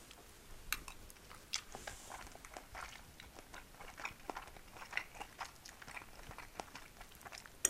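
Quiet, steady chewing of food during lunch, with repeated soft crunches and bites in an irregular rhythm, heard on its own with no talking.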